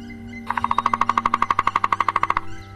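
A drumming lure imitating a three-toed woodpecker, played to attract the bird in a forest. It is a loud, steady roll of about twenty rapid, evenly spaced knocks lasting nearly two seconds, sharp and mid-pitched, with no voices and only a faint hum underneath.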